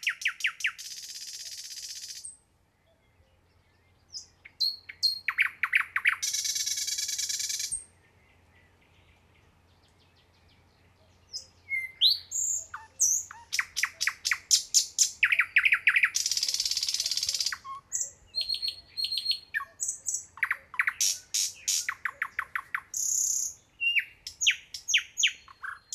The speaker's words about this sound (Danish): Optagelserne af nattergalen, som du har hørt i dette indslag, har jeg indfanget i Børstingerød Mose ved Allerød i 2007.